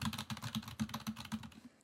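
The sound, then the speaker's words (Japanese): Rapid, steady typing on a computer keyboard, a run of crisp clicking keystrokes in quick rhythm for under two seconds, with no voices. “あとこのキーボードこれをここに今キーボードあるんですけど”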